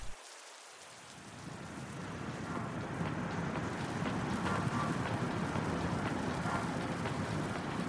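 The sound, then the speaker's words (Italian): Steady rain pours down over a quiet street of small villas in a dense, continuous hiss with a low rumbling undertone, swelling slightly after the first seconds and holding even throughout, with no voices. “d'improvviso, sente un grido rompere il mormorio della pioggia e il silenzio delle villette.”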